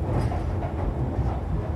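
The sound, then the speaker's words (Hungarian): A newer Russian-built metro train with passengers sitting inside runs along the rails with a steady, heavy low rumble and faint rattling, continuous and fairly loud throughout, with no voices. “Már újabb metró ugyan, de ez is orosz.”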